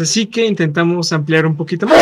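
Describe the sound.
A man talks steadily, then a sudden, loud, close sneeze bursts out right at the end as the speech stops, a single sharp noisy blast.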